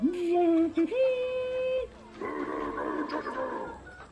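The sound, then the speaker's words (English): A joust in an arena in a town, heard in the distance: a long, wavering horse whinny rings out, followed after a brief pause by a swelling murmur of crowd noise that fades out. “Quick question what is that noise? Ah, what? The joust. The joust. There is a joust here”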